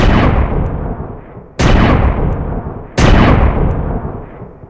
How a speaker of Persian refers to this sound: تو کمتر از چند ثانیه لحش بلند کرد و به سمت من نشونه گرفت. دستاش میلرزید. دخترها جیغ زدن. گلوله سه بار شلیک شد.